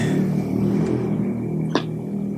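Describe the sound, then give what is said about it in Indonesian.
A motorcycle engine drones and revs outside at night, a steady, fairly loud low rumble with a buzzing edge that holds throughout, broken by one brief sharp click near the end. No one speaks. “Ini brengsek nih malam-malam suara motor itu kayak anjing memang ke motor.”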